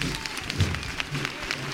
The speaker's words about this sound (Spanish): Primer aplauso cerrado